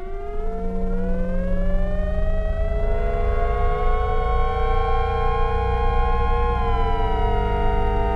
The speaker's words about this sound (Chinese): 呃真的蛮像防空警报的耶，老师， 很有趣，很有趣。